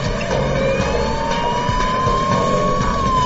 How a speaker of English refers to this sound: But at the last second, the van speeds up and the ambulance cannot make a strong hit. The van, which has more horsepower, easily gets away from the SWAT team.